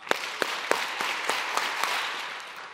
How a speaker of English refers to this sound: If you can hear me clap seven times.